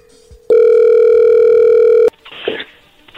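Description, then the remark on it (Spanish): A phone call being placed: a loud, steady telephone tone holds for about a second and a half, then cuts off with a click into brief muffled rustling. No one speaks. “Perfecto, bueno, vamos a llamarle a ver qué sucede.”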